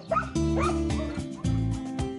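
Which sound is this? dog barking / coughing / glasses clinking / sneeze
dog barking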